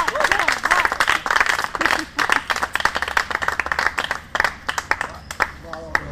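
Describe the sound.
An audience breaks into steady applause, a dense, crackling wash of many hands clapping that holds for several seconds, with a few voices briefly audible beneath it before it thins out at the end.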